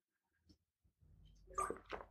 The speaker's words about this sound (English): So, anyways, uh, I'm going to take a drink of my water real quick. Uh, if this makes the final edit, you'll have a brief moment of silence for me to do that.